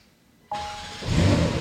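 A Porsche sports car engine cranks to life after a short silence, started by turning a switch instead of a key: a sudden whirring burst, then a deep, throaty rumble swells up loud, with no one talking.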